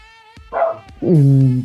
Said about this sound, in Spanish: perdón por los perros. no eh, problema, un saludo también para los perros.